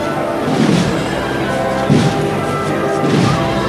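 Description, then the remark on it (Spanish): The band of the land forces, a military band, plays a slow processional march at the Plaza de la Campana, heavy bass drum strokes landing roughly every second and a quarter beneath sustained brass chords, loud and full in an echoing outdoor space. “Suena Cristo de la Sangre. En la campana, por parte de la banda de las fuerzas terrestres.”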